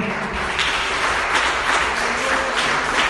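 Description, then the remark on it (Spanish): A crowd breaks into sustained applause for the Lord after a prayer, a dense, steady wash of many hands clapping at once, fairly loud throughout with no voices rising above it. “¿Por qué no le das un aplauso al Señor?”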